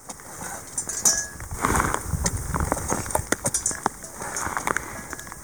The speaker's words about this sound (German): das klingt für mich ehrlich gesagt ja fast so ein bisschen wie äh, Kuhglockenbimmeln aus Südtirol oder so. Äh, was ist dieses metallische Bimmeln, was wir da im Hintergrund hören? Ähm, ja, das ist wirklich Eis.